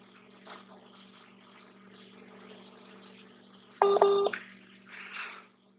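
A quick, loud burst of touch-tone keypad beeps, lasting about half a second, rises out of a low, steady electrical hum and faint murmuring background noise.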